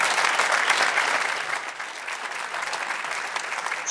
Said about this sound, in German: erstmal ein herzliches Willkommen und einen großen Applaus aus München rüber nach Katar.